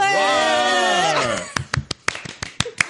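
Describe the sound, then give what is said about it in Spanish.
A sustained, held voice fades out, then a short burst of scattered applause follows: about ten sharp, uneven claps over a second and a half, loud and crisp with brief gaps between them. “hecho un, aplauso de... Claro. muy clásico, Un clásico de las pelis de instituto.”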